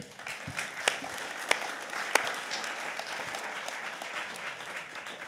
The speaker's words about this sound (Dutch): Komt u ook even staan. Geeft u meteen een warm applaus.